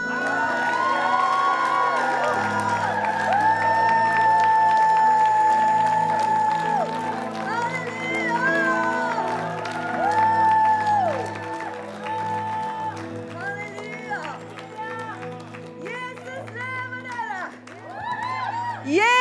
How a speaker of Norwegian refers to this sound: Skal vi gi Jesus en skikkelig jubel? Et litt sånn trøkk? Er dere klar? La oss eh, juble innenfor ham. Halleluja!